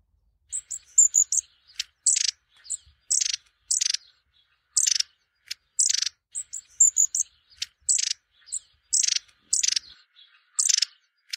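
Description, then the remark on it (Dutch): Long-tailed tit calls: a rapid series of thin, high-pitched notes mixed with short buzzy trills, repeated steadily, with no voices and only quiet background between calls. “Aflevering 13 staartmees”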